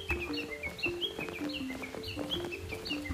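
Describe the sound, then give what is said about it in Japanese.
Japanese bush warbler song and valley-crossing calls ring out among a busy chorus of short, repeated chirps and whistles, steady and moderately loud throughout, with no talking. “ひよひよ言ってんのなんか方法結局はさえずりでこのこのやたらうるさいのがだっけ谷渡り地鳴きなんか違う鳴き方なんですってほとんどその2つ3つの鳴き声だけやり取りしてるのがすごいですよね”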